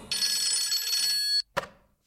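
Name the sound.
telephone ringing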